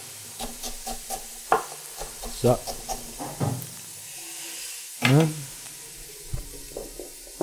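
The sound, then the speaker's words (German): Onions sizzle steadily in a hot pan, a soft continuous frying hiss in the background while a person speaks briefly over it and utensils occasionally clatter and stir. “Zwiebeln, ihr hört die im Hintergrund.”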